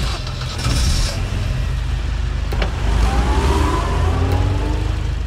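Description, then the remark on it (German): In a truck-driving video game, a heavy truck engine drones steadily as it drives to a city warehouse to pick up steel and wood, a low rumble that rises in pitch as it accelerates, with faint tonal whine and a brief clatter partway through. “Am Lager angekommen, nachdem ich noch eben ein Verkehrsschild umgenietet habe, weil ich den Wendekreis des Trucks unterschätzt hatte”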